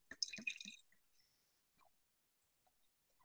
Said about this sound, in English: What a delightful sound. That's nice. That's how you know this is my first sip of wine. So I should be pretty level headed this whole time.